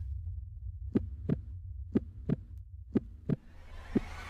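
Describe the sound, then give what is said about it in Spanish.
A heavy heartbeat thumps in steady lub-dub pairs about once a second, prominent over a low rumbling hum, with a faint hiss creeping in near the end. “El corazón se le salía del pecho del temor.”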